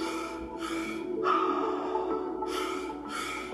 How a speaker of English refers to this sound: three-part shamanic breath, which is an inhale to the belly, inhale to the chest, exhale at the mouth, and it sounds like this.